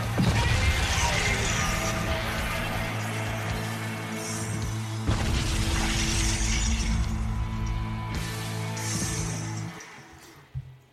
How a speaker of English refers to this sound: I couldn't really tell what that was until the end. It was screaming, explosions, and Godzilla roars.